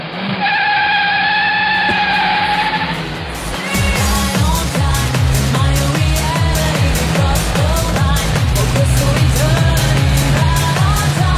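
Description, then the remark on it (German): A bus rumbles and whines as it pulls up, its engine tone shifting and squealing over a steady, rattling drone, with no voices heard. “Ja, der fährt gerade vor mit seinem Bus.”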